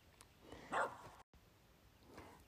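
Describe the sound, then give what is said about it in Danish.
A single short dog bark rings out in the background, followed by faint softer yips later on, over a low steady hum with no talking. “Der er altså lige en hund, der gør i baggrunden.”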